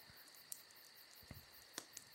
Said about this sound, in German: Das wird die übelste Arbeit, das nachher im Podcast reinzufriemeln, aber man hört es vielleicht im Hintergrund, jetzt gerade im Stream des Campfire. Ich mache es ein bisschen lauter.